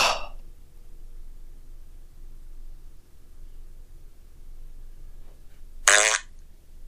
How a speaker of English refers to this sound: Who was that? Who farted? Please, please, everyone, be serious.